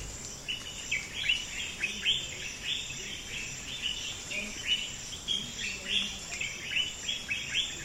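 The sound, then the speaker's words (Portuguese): A dense chorus of thousands of birds singing at dawn, at the first light, in a forest in southern Guinea-Bissau, overlapping high chirps and trills repeating steadily, with a continuous faint insect hum underneath and no voices. “Milhares de cantores celebram os primeiros raios de luz.”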